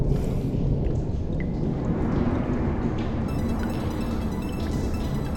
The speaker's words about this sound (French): te laissant seul, avec le bruit de l'orage qui commence à gronder dehors.